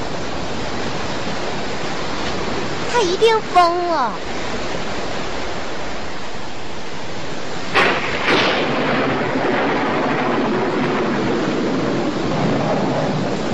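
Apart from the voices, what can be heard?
rain falling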